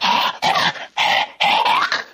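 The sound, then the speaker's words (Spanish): A voice imitates a dog with kennel cough gagging as if gargling or trying to spit: four harsh, raspy hacking bursts in quick succession, fairly loud, with brief gaps between them. “Este, tu perrito va a traer así como queriendo echar este como gárgaras, como eh, querer escupir”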